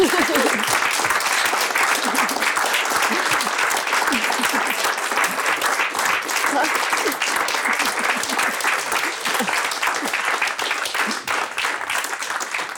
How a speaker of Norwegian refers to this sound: Så jeg syns vi kan klappe helt til slutt for at vi har fått to store filmteateropplevelser.